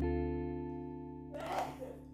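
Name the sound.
someone sneezing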